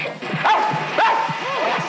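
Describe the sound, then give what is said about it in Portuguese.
A person imitates a dog barking, barking back at a dog that startles him whenever he passes, letting out three or four rough, yappy barks in a steady rhythm, fairly loud, with no other talking. “Eu vou latir também.”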